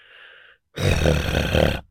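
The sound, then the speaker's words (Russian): A singer demonstrates a harsh vocal growl made without engaging the vocal cords: one sustained, gritty rasp lasting about a second, loud and rough with a deep rumbling base, preceded by a brief, faint tonal hum. “Просто вот если я, допустим, отделяю, сейчас я поудобнее сяду, вот это рычание,”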